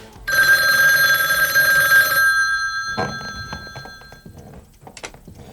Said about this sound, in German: Dafür klingelte noch an diesem Abend das Telefon in der Zentrale.